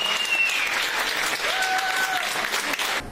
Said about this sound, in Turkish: İleri yaş risk grubundaki doktor virüsü 25 günlük tedavi sonrasında yendi. Alkışlar eşliğinde taburcu edildi.